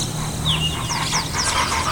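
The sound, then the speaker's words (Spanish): A flock of parrots and parakeets in the city of Tuxtla squawks in a steady, overlapping chatter of harsh, rising calls over a low background hum. “Los loros y cotorras escuchan tu voz, tu transitar por la ciudad.”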